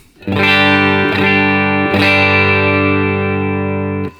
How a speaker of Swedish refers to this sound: hur låter gitarren rent? Den låter så här.